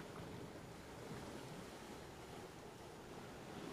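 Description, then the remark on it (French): Steady wash of sea waves against the shore of a beach, rocking small red and blue boats with monster-head prows; a continuous broad rush with gusty wind noise on the microphone, no voices, even throughout. “De petites barques à tête de monstres rouges et bleus se bercent au gré des vagues.”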